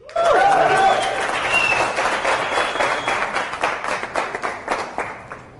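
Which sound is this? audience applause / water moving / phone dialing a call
audience applause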